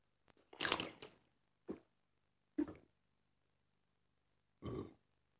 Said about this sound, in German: Ich kann den nochmal machen. Das Blöde ist, dass ich für den Todesrülpser immer relativ viel Wasser trinken muss.